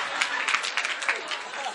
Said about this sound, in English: You, you are cutting the cake. Hold the knife well. Cut it. It's been cut. Clap for them. Finished.